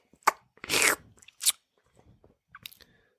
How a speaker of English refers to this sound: Wait, let me take my retainer out.